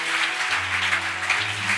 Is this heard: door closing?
no